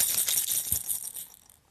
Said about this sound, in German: Hier ist ja noch der Knister Rassel